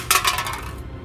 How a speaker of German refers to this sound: Und als die letzte Münze auf den Boden fällt, ertönt auch das blecherne Geräusch ein letztes Mal.